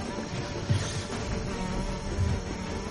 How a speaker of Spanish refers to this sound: Qué guay cómo se escuchan las moscas, tío. Sí, sí, súper guay.